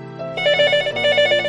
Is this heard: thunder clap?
no